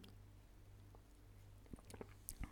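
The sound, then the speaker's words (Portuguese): Someone takes a quiet sip of coffee from a mug, a few soft wet mouth and swallowing sounds clustered near the end over a steady low hum. “Até vou beber um golinho de café.”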